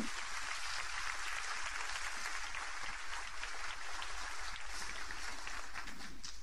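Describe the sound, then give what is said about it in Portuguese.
An audience at a Portuguese-language church service applauds the Lord steadily, a dense wash of many hands clapping at once that holds an even, sustained level throughout without a break or any voices rising above it. “Pode aplaudir ao Senhor.”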